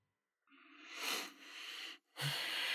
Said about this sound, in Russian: Он очень глубоко дышит за кадром, как вы слышите. Ему, правда, очень тяжело собраться.